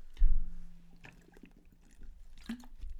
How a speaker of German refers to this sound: So, ich trinke kurz ein Stück Wasser. Die, die ähm, allzeit beliebte oder nicht beliebte Trinkpause im Podcast hier. Muss sein.